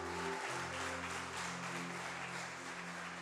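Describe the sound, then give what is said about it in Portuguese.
An audience applauds the Lord Jesus in a steady, dense wash of clapping that holds for a few seconds, while sustained low keyboard tones drone underneath. “Aplauda o Senhor Jesus!”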